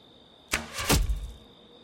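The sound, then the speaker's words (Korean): A single arrow loosed from a bow: a sharp snap of release, then a quick whooshing flight ending in a solid thud, fairly loud against a quiet background. “길동은 곧바로 몸을 감추고 활을 쏘아 그중 괴수를 맞췄다”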